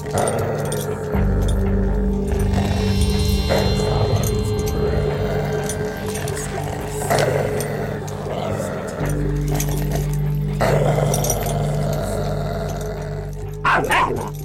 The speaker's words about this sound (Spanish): Sin embargo, con el tiempo, una persona que frecuentaba la propiedad y solía ir acompañado de su perro, notaba que éste se ponía muy nervioso y terminaba ladrando sin cesar a la figura.